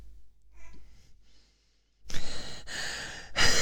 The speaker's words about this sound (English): I can hear myself breathing now